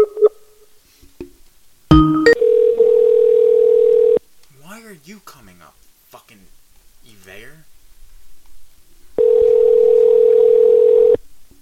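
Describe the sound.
A telephone line rings with two loud, steady electronic tone bursts about two seconds each, starting right after a sharp click. A man talks briefly in the gap between the rings.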